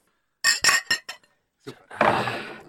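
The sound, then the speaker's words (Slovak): Beer glasses clink together in a toast, four bright taps in quick succession, followed after a short pause by a soft, breathy rushing sound. “Chlapci na zdravie.”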